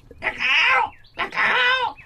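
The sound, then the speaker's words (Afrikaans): Two loud, harsh squawking calls from a hadeda ibis, each a drawn-out nasal cry lasting over half a second with a short gap between them. “Drietjie Dassie gaan staan langs Mani Muur en kyk na Hercules Hadida wat aan mekaar skree en lawaai.”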